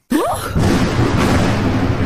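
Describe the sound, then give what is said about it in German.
Lightning strikes a power line with a sudden loud crack and a brief warbling tone, then settles into a steady, heavy rumbling roar that lasts to the end without fading. “Da hat irgendwo der Blitz in die Leitung eingeschlagen.”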